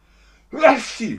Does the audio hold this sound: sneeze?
yes